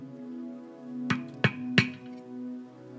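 Three sharp knocks on a door in quick, even succession, distinct, sounding over a steady low humming drone that continues before and after.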